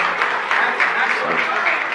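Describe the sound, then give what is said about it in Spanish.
A church audience breaks into sustained applause honoring its pastoral team on Pastor's Day, a dense, steady wash of many hands clapping at once, holding an even loudness throughout with no single claps standing out. “Quiero que hoy honremos con un aplauso a nuestro equipo pastoral que hace un trabajo tan bonito.”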